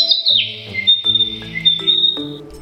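Bird chirping: high, whistly tweets running steadily for a few seconds over a soft, stepping musical backdrop, fairly loud, with no voices.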